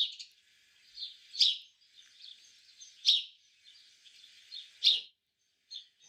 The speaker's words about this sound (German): Hören wir mal geschwind den Spatz.